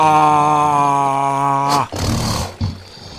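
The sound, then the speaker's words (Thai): A voice imitates a crocodile's threatening roar at a rabbit, its mouth opened wide: a loud, sustained, tonal growl held for nearly two seconds, then breaking into a rough, noisy exhale and a short final grunt. “ระหว่างจระเข้ส่งเสียงฮาอยู่นั้น ทำให้จระเข้ต้องอ้าปากกว้างจนขากรรไกรนั้นแทบจะค้างจึงเป็นโอกาสดีที่เจ้ากระต่ายจะได้กระโดดออกมา”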